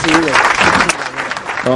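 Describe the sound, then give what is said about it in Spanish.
A short burst of steady clapping from a small group, with voices heard briefly at the start and again as it ends; the applause is for Cristian Michel Valdivieso. “Un aplauso para él, claro que sí.”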